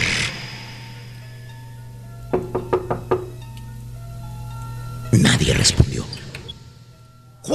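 A series of about five quick, sharp knocks on the bathroom door of a corner shop before entering, followed by a louder burst of rustling or door handling noise over a low steady hum.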